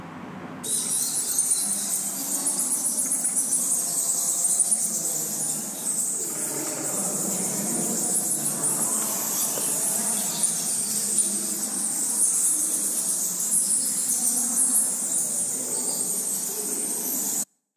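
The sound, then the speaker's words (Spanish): Bats in a cave, heard while walking through it: a dense, unbroken chorus of shrill squeaks and chittering that holds at a steady, fairly loud level for the whole stretch, with no voices. “os voy a poner los sonidos de los murciélagos para que para que los escuchéis y os hagáis una idea también de lo que iba escuchando mientras, mientras caminaba por la, por la cueva.”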